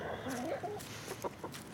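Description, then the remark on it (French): A hen clucks several times in short, uneven bursts, fairly loud, with a few brief scratchy noises mixed in and no talking. “Poule a plusieurs occupations. Manger, cacter, dormir et”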